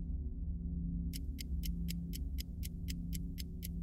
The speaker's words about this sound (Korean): 시간이 똑딱거리는 시계 소리와 함께 지나갔다.